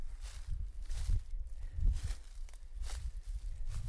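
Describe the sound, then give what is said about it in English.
Footsteps crunching through dry leaves on a sunny day of around 70 degrees at Eno River State Park in Durham, North Carolina, a steady walking rhythm of about six or seven crisp, rustling crunches with low thuds underneath, moderately loud and with no voices. “These would be leaves that are crunching under your feet.”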